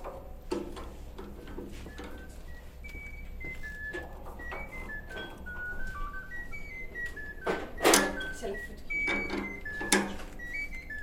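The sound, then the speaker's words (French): A telephone rings with a steady run of short, high electronic notes that hop between pitches, mixed with scattered clicks and clattering knocks. Nobody speaks. “sorry, that's my telephone, but I'm not going to.”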